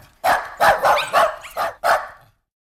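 A small lapdog barks six times in quick succession, sharp and high-pitched yaps, then falls silent.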